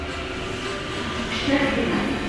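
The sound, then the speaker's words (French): Steady rumble of a metro train in an underground station, heard from the platform while waiting, a broad rushing roar with faint high-pitched tonal squeals rising briefly midway, fairly loud, with voices murmuring faintly in the background. “J'attends le métro et en face de moi sur le quai,”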